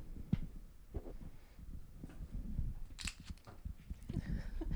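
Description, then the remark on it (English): The screw cap of a bottle of Garnacha wine is twisted open, its seal giving way in a run of sharp crackles and crunchy clicks, with a brighter snap near the end and no talking. “the cracking effect. of the bottle.”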